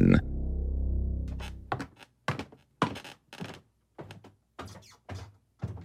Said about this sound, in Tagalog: Nang tanungin daw niya kung nasaan na bago pa raw sumagot ang ate niya narinig niyang nagsara ang pinto.